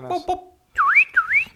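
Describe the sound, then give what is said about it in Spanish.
A voice mimics a Yamaha motorcycle's wailing alarm siren, two rising-and-falling whoops in quick succession, fairly loud, preceded by a couple of short vocal bursts. “Este, esa es la alarma de la Yamahita.”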